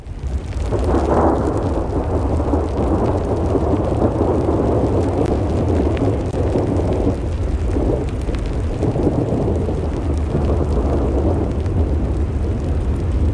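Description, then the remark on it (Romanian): A thunderstorm in the Atlas Mountains, Morocco, with steady heavy rain and deep, rolling rumbles of thunder that swell and fade throughout, loud and continuous with no voices. “asta acum este în, în munții Atlas, în Maroc. Furtună.”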